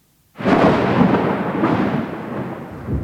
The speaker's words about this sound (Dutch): Een rollende donderslag deed het huis schudden.